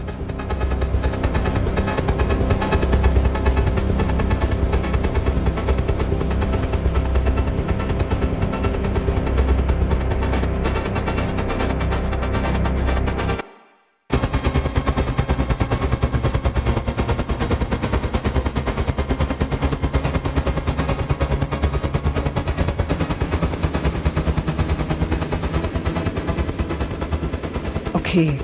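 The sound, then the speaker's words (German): Loud, dense contemporary music with harsh, rapid-fire percussive noise filling the whole range, broken by one brief moment of silence about halfway through before the relentless texture resumes. “Und er hat schon für verschiedene ChoreografInnen komponiert und eben jetzt für Sascha Walz eine Auftragsarbeit gemacht”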